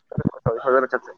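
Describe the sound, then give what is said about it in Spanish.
A voice comes through choppy and broken up, with garbled, radio-like interference. It arrives in short bursts with a brief dropout partway through, so no words come across clearly. “Se escucha cortado y se escucha como un sonido de intermisión.”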